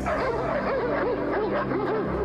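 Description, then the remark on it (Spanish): Several dogs bark and yelp over one another in a continuous, loud chorus of overlapping, high-pitched barks with a few whimpering tones mixed in. “¿Tienes perro? Eh, sí, maestro, varios. Entonces mete a todos en la casa.”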